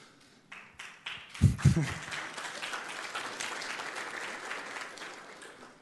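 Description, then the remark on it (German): A few scattered claps open, then a full church audience breaks into sustained applause, dense and steady, for several seconds with a couple of louder bursts near the start. “Wenn einer klatscht, klatschen alle, okay?”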